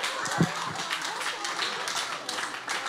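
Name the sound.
audience clapping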